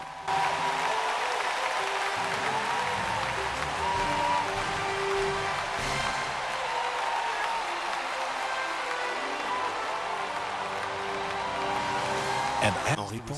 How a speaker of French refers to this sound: Est-ce que quelqu'un peut crier Alléluia S'il vous plaît, acclamez très fort